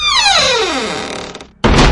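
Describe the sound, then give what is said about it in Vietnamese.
A door swings with a long, falling creak, then is hurriedly slammed shut with a sudden loud bang near the end. No one speaks. “Đôi mắt của Hải vẫn hướng về phía cánh cửa phòng tắm Như đang đề phòng cao độ Một thứ gì đó có thể ập ngay tới bất cứ lúc nào Hải vội lao người sẽ đóng sập cánh cửa lại”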